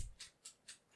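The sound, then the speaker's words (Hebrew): A pet dog scratching itself: four quick, bright scraping bursts in a steady rhythm, fairly soft, with no voices. “הרעש הזה זה הכלב שלי מתגרד פה.”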